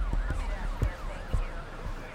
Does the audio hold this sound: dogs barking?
no